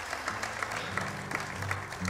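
Steady applause from a crowd, a dense wash of many hands clapping at an even level for a couple of seconds, with a low hum underneath.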